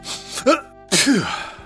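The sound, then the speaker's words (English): A voice performs a sneeze of someone feeling under the weather: a brief rising intake of breath, a short pause, then a loud, sharp burst that trails off into a wavering, voiced tail. “Sneeze.”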